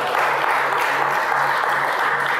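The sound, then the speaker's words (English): Steady, dense applause from a crowd giving a man a hand clap once more, many hands clapping at once in a continuous bright patter that holds at an even, fairly loud level throughout, with no voices standing out. “So, would y'all give him a hand clap one more time?”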